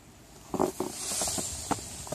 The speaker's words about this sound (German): Es knirscht. Es knirscht. Und zwar krass, oder? Hier mhm. läuft einer durch den Schnee, das raschelt ist die Hose, glaube ich, dazwischen. Also man hat das Gefühl, hier macht einer so Styropor aneinander oder, oder Pappen oder sowas.